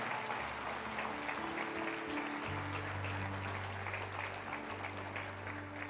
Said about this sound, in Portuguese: Se é para Jesus, dê uma salva de palmas, aleluia.